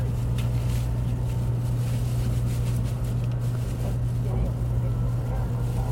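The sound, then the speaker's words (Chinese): A high-speed train's motor, heard from inside the train as it starts to accelerate, drones with a steady low hum over a constant rumble and rushing noise, sustained and fairly loud throughout. “你听那个马达的声音越来越快。”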